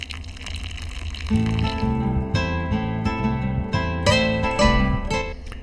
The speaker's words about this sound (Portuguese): Vem água, tchê, vem água.